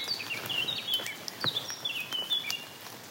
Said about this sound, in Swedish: Och det enda som hörs är fåglar och regnet som strilar. Ett litet försiktigt regn, så det går bra att gå.